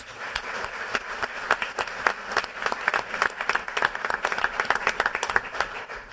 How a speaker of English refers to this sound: So, round of applause, please, for our sponsors.